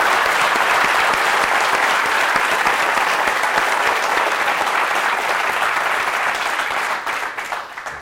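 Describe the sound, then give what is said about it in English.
Sustained audience applause for the co-founder of Uni Rui Entertainment, at an event at UCSB: a dense, steady wash of many hands clapping at full volume for about seven seconds before it begins to thin and taper off at the end. “Uh, let's applaud for her.”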